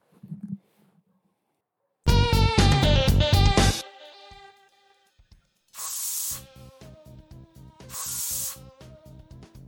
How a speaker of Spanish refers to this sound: Oye, amiga, ¿y ese ruido que escucho qué es? ¿Eres tú? Uy, sorry, lo que pasa es que no había alcanzado a, echarme mi, agua termal en la cara. ¿Agua cuánto? Agua termal, lo que pasa es que es parte de la terapia de belleza.